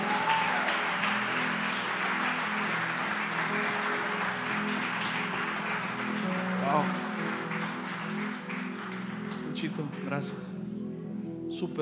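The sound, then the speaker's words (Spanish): An audience gives a loud round of applause to the Lord, a dense wash of clapping that holds for several seconds before thinning out, with crowd voices mixed in and a low sustained musical tone underneath. “Si usted recibió, de un fuerte aplauso al Señor y los que están en casa.”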